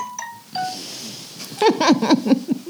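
A mobile phone ringtone sounds in short, clear electronic tones at the start, then voices break in loudly and talk over the end.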